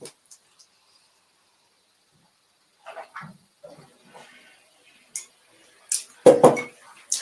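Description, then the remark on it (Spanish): Someone takes a few quiet sips from a cup, with faint slurps and soft clinks of the cup being handled, ending in a louder clatter as it's set down. “Me dejarme mira, sorbito porque tengo la voz.”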